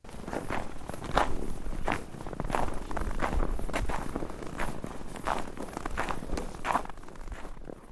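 Steady footsteps crunch through snow in a dense evergreen forest, roughly ten evenly paced steps at a walking rhythm, clear over a faint outdoor hush with no voices.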